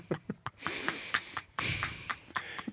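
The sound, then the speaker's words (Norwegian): A voice imitates the heavy mouth breathing of a man sitting in the next seat in a cinema, with long, loud, hissing breaths in and out, repeated in a steady rhythm, with no talking. “Åh, oh, det var munnpuster, altså. For det var så mye pusting.”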